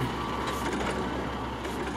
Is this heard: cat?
no